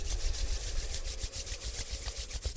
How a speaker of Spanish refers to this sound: Y así como estás, con tus ojos cerrados, te voy a pedir que comiences a frotar las palmas de tus manos